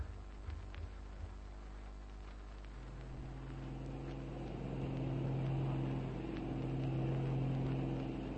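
A steady, low droning aeroplane engine hums continuously, its tone holding even and growing slightly louder partway through, with no voices over it.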